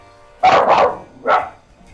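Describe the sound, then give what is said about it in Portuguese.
A dog barks three times, two quick barks close together followed by a single bark after a short pause, fairly loud with no one talking. “Qual é o nome do cachorro pra gente poder botar, poder botar nos créditos, hein?”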